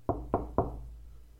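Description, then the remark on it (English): Three firm, evenly spaced knocks on a heavy, dark mahogany door of a West Wing room, with a dull, solid thud, each fading quickly into quiet afterward. “one of the other West Wing rooms with a dark mahogany door which Lucy rapped upon”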